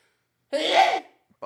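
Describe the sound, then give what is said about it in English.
A single loud sneeze bursts out abruptly after a moment of silence, and a voice starts speaking right after it. “I think that's my first sneeze on this podcast.”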